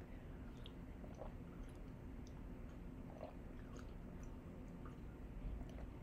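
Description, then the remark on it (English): Five tiny sips of water from a glass, taken in quick succession to get rid of hiccups, soft mouth and swallowing sounds repeating at a steady pace over a faint background hiss, with no talking. “If you have the hiccups, what you want to do is take five tiny sips all in a row, hold your breath, and do it again.”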